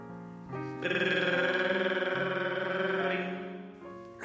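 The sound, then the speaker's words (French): A telephone rings in the middle of the night in one sustained, buzzing burst lasting a few seconds, loud, with a rapid trembling warble running through its bright electronic tone. No one speaks. “téléphone en pleine nuit.”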